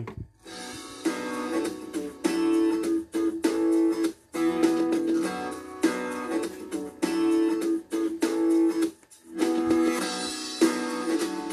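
A driving pop rock song with a punchy, steady beat, bright guitars and a strong midrange melody, playing loud and continuous with brief rhythmic breaks and no talking over it.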